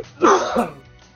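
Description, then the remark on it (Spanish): A single forceful human sneeze bursts out and fades within about half a second in Washington, DC, followed by a quiet stretch with no talking. “Salud.”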